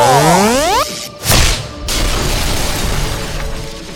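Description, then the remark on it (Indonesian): A rising, crackling electric charge-up builds for nearly a second, then a sharp whooshing strike bursts out, followed by a long buzzing, sizzling tail that slowly fades: a close-range straight punch releasing a large burst of electric energy. No one speaks. “Wah, dari pukulan straight jarak dekat yang menghasilkan energi listrik yang besar dan menyebabkan damage yang tinggi.”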